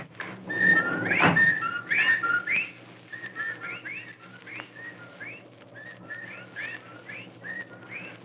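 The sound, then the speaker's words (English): A chorus of whippoorwills calls over and over at night, their sharp whistled phrases overlapping above a low, steady rumble, with a brief louder burst near the start. “Well, there are the whippoorwills.”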